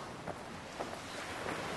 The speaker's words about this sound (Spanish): La, arena regresó, pero es una arena diferente, está húmeda. Puedes escuchar las olas, puedes sentir el viento, puedes sentir la brisa en tu piel.